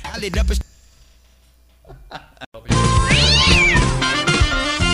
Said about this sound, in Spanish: te divierte ver video de gatitos maullando, espera a ver esto, loco.